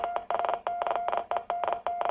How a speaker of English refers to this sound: It's Morse code. Morse code that translates to the word ascend.